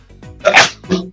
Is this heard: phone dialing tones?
no